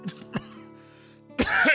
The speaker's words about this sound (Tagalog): Kuya, nag-aalala talaga ako dyan sa ubo mo.